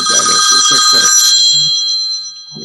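A telephone rings with a bright, steady electronic tone, fairly loud, fading out partway through while a man keeps talking underneath it; the call is from the man's son.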